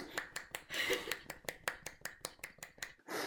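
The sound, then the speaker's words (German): A rapid, steady series of sharp slapping claps made with one hand, about a dozen crisp hits in quick succession, with some faint voice sounds underneath. “Wusstet ihr, dass ich mit einer Hand klatschen kann?”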